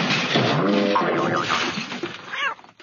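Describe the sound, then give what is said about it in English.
A loud, sustained crash of clattering and shattering fills nearly three seconds, caused by someone tripping over the pet Tiger's bowl, with a brief yowling cat cry mixed in before the noise tapers off at the end. “Just then, Mike heard a crash.”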